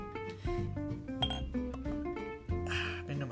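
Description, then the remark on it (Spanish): Glass clinks and knocks as a bottle of Loba Negra porter beer is handled and opened, with ringing tones, several sharp taps, and a brief fizzy hiss near the end. “Y, ay, perdón, eh, tengo que conseguirme un, un destapador. Y bueno, lo voy a servir acá.”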